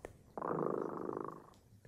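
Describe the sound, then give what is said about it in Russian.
Tremut's cat purrs softly and steadily for about a second, a low continuous rumble with a gentle pulsing texture, heard alone with no talking. “Слышите? Кот Тремута запел свою песенку.”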